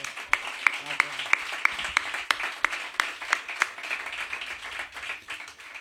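Applause from a small group: a steady, rhythmic run of sharp claps over a bed of scattered clapping, the beat loosening and thinning out after a few seconds.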